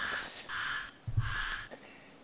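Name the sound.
pet parrot squawking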